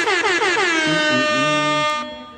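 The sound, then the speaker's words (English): A loud, sustained air horn, the Quick Six show horn, blares for about two seconds, its bright, brassy tone holding steady before cutting off abruptly, with no voices over it. “can you please hit the quick six show horn, please?”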